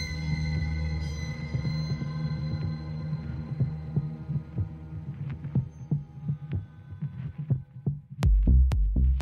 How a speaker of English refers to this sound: I reached forward and rested my hand on his chest, felt his beating heart beneath my fingertips.